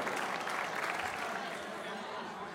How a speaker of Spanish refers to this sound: Todos aplaudimos.